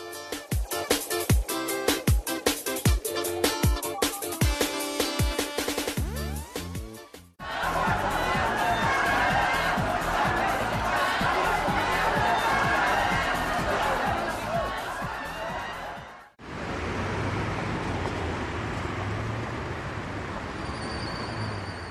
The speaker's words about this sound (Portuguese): Você escuta agora duas POCs no busão.